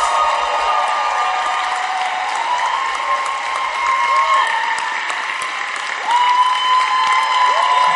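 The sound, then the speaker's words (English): An audience claps steadily for several seconds, a dense, continuous wash of many hands with scattered voices and a few cheers rising over it, loud throughout. “Your clap is weak.”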